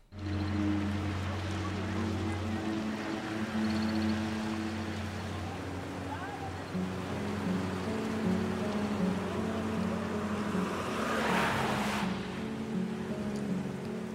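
A coach engine drones steadily as it travels along a road, a low humming rumble with road noise throughout, shifting slightly in pitch partway and swelling briefly into a louder rushing hiss near the end.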